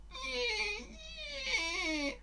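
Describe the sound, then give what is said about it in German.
A door squeaks in two long, drawn-out creaks, each a shrill, whining tone that wavers and slides in pitch, heard on its own without any talking. “Die Tür quietscht.”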